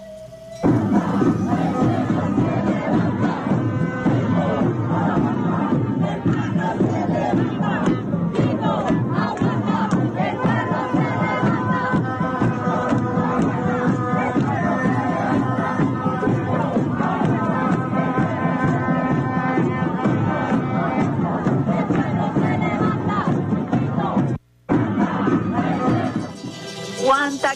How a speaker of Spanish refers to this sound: Ahí tenemos un audio del pueblo de Ecuador en las calles. Vamos a ver si se puede percibir a través del Sistema Radio Nacional de Venezuela.